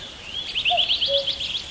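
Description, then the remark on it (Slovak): Songbirds chirping outdoors in a forest, recorded during a hike, a rapid run of high, bright chirps with a couple of softer whistled notes beneath, fairly quiet, with no voices. “Tam okrem vtáčikov bolo v diálke zretelne počuť nasledovnú komunikáciu.”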